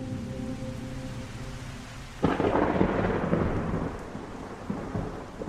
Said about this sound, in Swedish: Som om någon från Hollywood regisserade händelseförloppet så flög den mörkaste storm som någonsin synts i Jonestown in över staden.